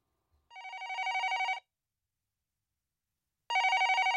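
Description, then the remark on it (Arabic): A home telephone rings in two bursts, each a rapid trilling electronic-bell warble about a second long, separated by a pause, clear with no voices. “كانت أحيانا تجيب الهاتف في المنزل فتحيي المتصل بطريقة رسمية وكأنه أحد العملاء”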